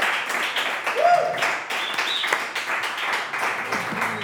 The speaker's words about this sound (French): On applaudit. Hein.